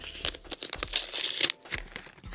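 Paper gift wrapping with a thorn design, around a box of 'Candy-wrapped Lemon' sweets, being torn open, a run of crinkling rips and rustles in quick, irregular bursts over about two seconds, with no voices.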